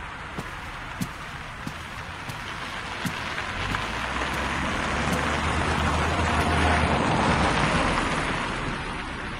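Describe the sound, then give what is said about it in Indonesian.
Steady rain falls near a river, with scattered drips and soft splashes, a broad hissing wash throughout, and a low engine-like rumble passing through the middle. No voices. “Aku memilih satu warung kecil tak jauh dari jembatan yang melengkung angkuh di atas sungainya untuk bisa menikmati secangkir kopi setelah hujan.”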